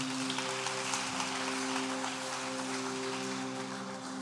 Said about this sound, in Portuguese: Você pode aplaudir a Ele, ficar de pé.